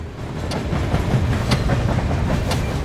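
Steel tram wheels roll steadily over rails with a constant low rumble, broken by sharp rhythmic clicks about once a second as the wheels cross rail joints, fairly loud.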